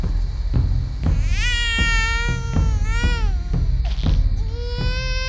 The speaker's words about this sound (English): Our newborn son's cries shook me from my memories.